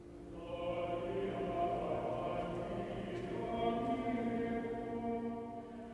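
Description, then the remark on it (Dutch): A recording of monks chanting, played in a monastery church: sustained harmonic chanting by a group of male voices, steady and resonant throughout, with a reverberant, echoing quality. “Ze zijn helaas niet fysiek aanwezig, nee. maar je hoort ze nu wel zingen.”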